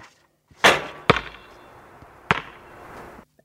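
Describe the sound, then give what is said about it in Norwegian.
A basketball strikes with a few sharp, echoing thuds, then a longer rustling swish as it drops through the hoop, ending in quiet. No one speaks. “Ja, for du hører akkurat på slutten at den går igjennom kurven. Ja. Og så er det noe som spretter, og så er det en oransje ting.”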